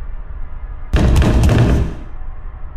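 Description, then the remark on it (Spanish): Three heavy, booming knocks on a door land in quick succession, loud enough to ring and blur together, then fade back into a low, steady background hum. No one speaks. “Eran los tres golpes otra vez, pero demasiado fuertes. Parecía que querían tumbarnos la puerta.”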